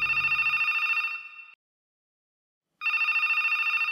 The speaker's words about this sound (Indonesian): Hingga 5 menit kemudian, telepon kembali berbunyi.